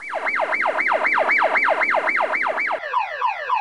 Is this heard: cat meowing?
no